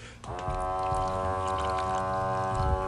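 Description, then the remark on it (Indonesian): Drinking water being dispensed from a machine at a boarding house into a glass at the press of a button, a steady, whining harmonic drone that starts abruptly and holds for nearly three seconds over a low, bubbly gurgle, fairly loud. “air minum di kosan gue tuh bunyinya kayak gini jangan ketawa ya anjrit”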